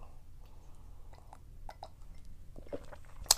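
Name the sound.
sipping wine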